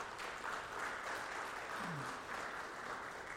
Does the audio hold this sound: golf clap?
yes